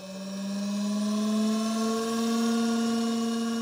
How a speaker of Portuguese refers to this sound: O som que ouvimos agora é o do rotor de uma centrifugadora Sigma a girar a 15 mil rotações por minuto, ou 16 mil Gs, Significa que a força centrífuga que está a ser aplicada aqui, mesmo à nossa frente, é 16 mil vezes maior que a força gravitacional